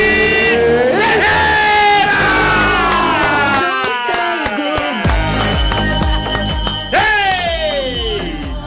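A loud, continuous burst of crowd cheering and applause as an audience welcomes a singer on stage, with shrill whoops and cries sliding up and down in pitch over a dense wash of clapping for several seconds.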